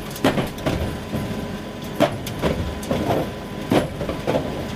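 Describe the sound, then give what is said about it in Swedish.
A tumble dryer's steady low rumble with irregular thumps and knocks every half second or so as the load tumbles, with no voices. “Är det ett samarbete mellan torktumlaren och sportredaktionen vi får vara med om här då?”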